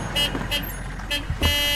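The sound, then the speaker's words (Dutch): A car arriving outside, heard as a steady low engine rumble with several short, bright, pulsing tones repeating roughly every half second, while a voice murmurs briefly. “Oh, wacht, ik hoor buiten een wagen.”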